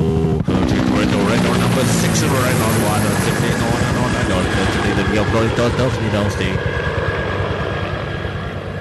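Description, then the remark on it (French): A rescue helicopter roars overhead as it arrives above Aquapinto beach, its rotor chopping in a fast, steady rhythm with engine whine, loud throughout before easing slightly toward the end. “Allô, allô, ici hélicoptère de récupération. Lancez votre fusée éclairante. Nous arrivons au-dessus de la plage d'Aquapinto.”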